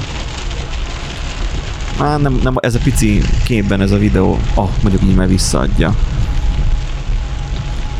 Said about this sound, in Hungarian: Annyira zuhogott, hogy a leggyorsabban jár már a törlő, és mm. még mhm. így is alig láttam ki.